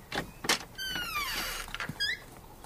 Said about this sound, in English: He opens his window and looks out.